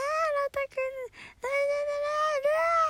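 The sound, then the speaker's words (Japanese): A voice mimics a baby's wailing cry in long, quavering, high-pitched bursts, with a couple of short breathy breaks between wails, fairly loud. “で赤ちゃんが泣いて私も一緒に泣き真似をし始めてで赤ちゃんが泣き止んで私がずっと泣き真似してんので”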